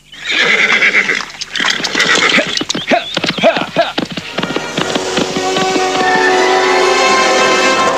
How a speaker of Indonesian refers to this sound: Ki Waris segera mengendalikan kudanya dengan kencang, meninggalkan pesanggrahan kerapiak.